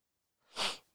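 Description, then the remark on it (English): A single sharp sniff through the nose, a brief airy rush that swells and fades within half a second, heard alone with no talking. “I apologize for the sniffles. My nose is wiling out.”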